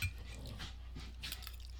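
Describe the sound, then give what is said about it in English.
Two dogs make noise in a few short, scuffling bursts with faint clinks, like tags jingling, over a steady low background hum. No one speaks. “Fucking dogs.”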